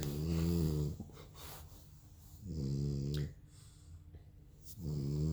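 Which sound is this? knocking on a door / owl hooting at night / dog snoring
dog snoring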